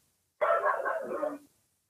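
A dog gives one drawn-out bark lasting about a second, fairly loud, with quiet before and after and no one talking.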